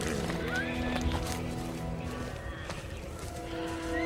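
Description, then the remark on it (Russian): Several restless horses whinny and neigh over a dense, rumbling background, with a few sharp rising cries standing out amid shuffling and stamping. “Кони встревожены, а люди подавлены.”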